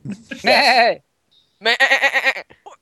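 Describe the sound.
A person mimics a goat, letting out a loud, wavering bleat, then a second longer, pulsing bleat after a short pause, clear.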